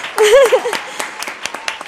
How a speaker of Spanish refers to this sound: Un aplauso.